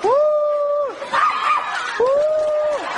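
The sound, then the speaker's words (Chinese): Two loud, drawn-out howls of a wolfdog, each holding a steady pitch for about a second before sliding down, with a rough, noisy stretch between them. “哎呀妈，狼狗啊！”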